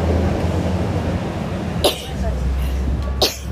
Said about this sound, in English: Um, sneeze.